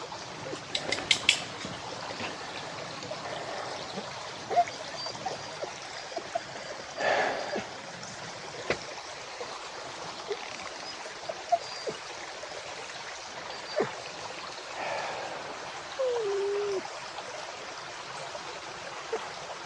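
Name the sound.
flowing stream water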